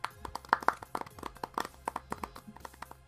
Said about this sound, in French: Belle auto-promo, guys. Je, pense que ça demande une belle main d'applaudissement.